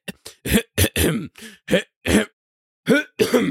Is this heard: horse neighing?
no